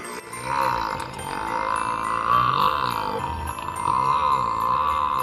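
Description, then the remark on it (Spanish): A long, loud burp rumbles on for several seconds, a deep croaking belch that wavers in pitch without a break, with no talking; the film character Buddy's belch after discovering Coca-Cola and spaghetti, a sound effect recorded by voice actor Maurice Lamarche. “Además de efectos visuales, también se usaron efectos de sonido bastante convincentes y graciosos, sobre todo en la escena donde Buddy descubre su gusto por la Coca-Cola y el espagueti, lo cual le lleva a lanzar un tremendo eructo.”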